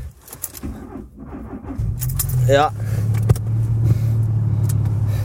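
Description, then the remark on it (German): Keys jingle, then the engine of a small car that has stood out in the cold cranks with a rising whine and catches at about two seconds, settling into a steady low idle hum. A voice speaks briefly near the start. “Dass der kleine Kamerad auch anspringt, nachdem er jetzt die ganze Zeit hier so in der Kälte rumstand.”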